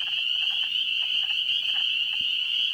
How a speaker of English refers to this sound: Peepers do peep. So do wood frogs wood?